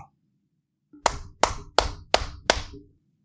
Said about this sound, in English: I don't know which one of you guys is clapping.